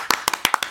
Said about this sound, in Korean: 어, 갑자기 박수가 네. 나오는데요? 맞아요. 오, 어, 밖에 우리 계신 분들도 박수.